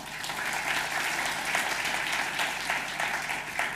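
An audience breaks into steady, sustained applause for God, many hands clapping together in a dense, continuous wash that stays fairly even in loudness for several seconds, with no one speaking over it.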